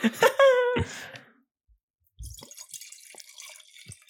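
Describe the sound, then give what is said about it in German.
A drink is poured into an empty glass in two goes: a brief gurgling, resonant pour, a short pause, then a longer steady splashing stream of liquid. “Das nervt mich natürlich auf zweimal mit dem Einschenken.”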